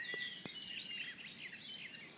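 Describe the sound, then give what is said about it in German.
A garden warbler sings a fast, continuous, rambling warble, fairly quiet, with a couple of soft knocks early on and no talking. “Und jetzt die Gartengrasmücke halt eben.”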